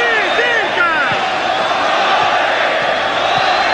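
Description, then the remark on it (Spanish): A large stadium crowd of Deporte Cristal football fans shouts wave cries during a match against Universitario, a loud, dense wall of voices with rising and falling cries layered on top, sustained at steady volume throughout. “Gritos de ola por los hinchas de Deporte Cristal.”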